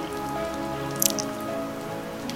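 Steady rain pattering on a hard surface, a continuous hiss with a few sharper drips standing out near the middle, fairly close and moderate in level, with a low steady hum underneath and no voices.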